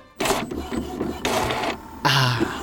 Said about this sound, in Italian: arrivo a casa, monto le testine sulla stampante e lancio finalmente la stampa.